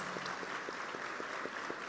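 A church audience applauds to welcome new members, a dense, steady patter of many hands clapping with a few sharper individual claps standing out in a regular rhythm, sustained without voices.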